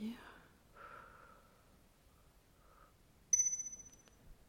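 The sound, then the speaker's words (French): Slow, soft breathing in a guided breathing exercise, a drawn-out exhale followed by a quieter inhale, faint, then a bright ringing tone chimes in and fades with pulsing decay. “On expire.”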